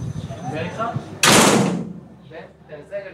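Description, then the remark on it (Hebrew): A heavy metal prison door at Ayalon Prison slams shut once with a loud, sharp crash that rings and fades over about a second, with a person talking just before and after. “בדרך כלל דלתות מתכת כבדות כאלה, שחורקות כשפותחים אותן, ונטרקות ברעש כשסוגרים.”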